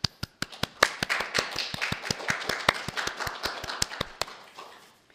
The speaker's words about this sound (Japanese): 母の日ですね、えー、お母さんたちに日頃の感謝を表したいと思います心から拍手をしましょ